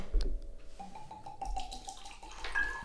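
Sazerac rye whiskey, distilled in Frankfort, Kentucky and bottled in New Orleans, glugs out of a bottle in a quick series of hollow, bubbling gulps, a liquid pour with rhythmic gurgles and a faint clink of glass, with no talking.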